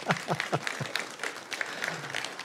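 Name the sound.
applause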